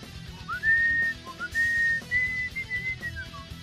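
Someone whistles a short melody of clear, sustained notes rising and falling over a few seconds, fairly loud, with a low murmur of background noise underneath.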